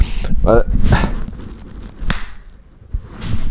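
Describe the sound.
A single sharp hand clap rings out after a brief stretch of voice, followed by a much fainter tap and then quiet background murmur.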